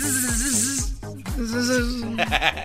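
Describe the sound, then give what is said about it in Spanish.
Bees buzz in a steady drone that wavers up and down in pitch, with a regular pulse of deep thumps underneath and a brief hiss near the end. “¿Creen que las abejas te paren la colita tan así?”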